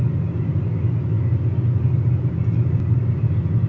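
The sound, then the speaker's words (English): A steady, low engine rumble drones from inside a Kia Rio car, recorded on an iPhone, a dense hum concentrated in the bass that holds even and unbroken, with no voices over it. “I know it's not going to sound great because I'm recording on my iPhone inside of a Kia Rio.”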